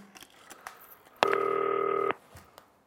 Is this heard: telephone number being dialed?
yes